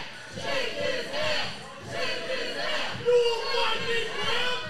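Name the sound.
crowd chanting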